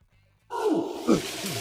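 After a brief hush, a large ape suddenly lets out a loud, rough roar, its growling grunts swelling into a second harsher surge before trailing off.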